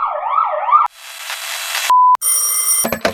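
A police car siren wails loudly for under a second, then cuts to a burst of noise, a steady electronic beep, and a string of ringing electronic tones, with no talking.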